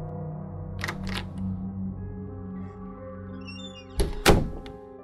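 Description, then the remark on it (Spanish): A door to the street opens as a woman enters, with a couple of soft clunks early on, then a louder double thunk of the latch and frame near the end, all over a steady low humming drone. “Vi a mi novia entrar por la puerta que da a la calle.”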